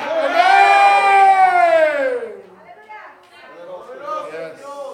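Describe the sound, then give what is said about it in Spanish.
An audience shouts amen together at a preacher's call during a sermon, in a loud, drawn-out cry that slides downward in pitch, then breaks into softer scattered voices and murmurs. “Hay el que lo crea, grita amén.”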